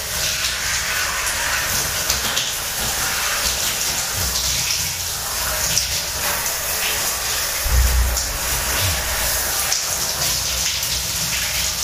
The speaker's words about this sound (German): Also. Wollen wir mal den Tag beginnen? Jetzt wie jeden Tag. Dusche.